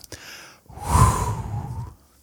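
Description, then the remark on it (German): A long, deep inhalation, rising to a full airy rush and fading after about a second and a half, with no talking. “Wir atmen also nochmal ganz, ganz tief ein”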